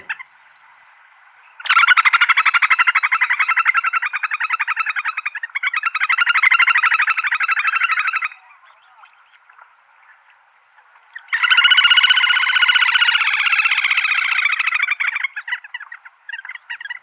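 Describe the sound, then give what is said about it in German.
A little grebe, a bird only slightly larger than a thrush, gives its loud, whinnying trill in three long, rapid bursts, two back to back, then a pause before a final sustained trill. It is clear and without any voices. “verrät sich aber durch seine kräftige Stimme, vor allem durch seine Triller, die man das ganze Jahr über hören kann”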